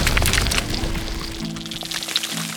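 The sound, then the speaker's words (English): Ground bursts open with a loud crack, followed by a dense clattering shower of rock debris that gradually thins out over a low, steady rumble. “But there was no time to think on it, because suddenly the ground beneath her bulged and then erupted in a shower of rock.”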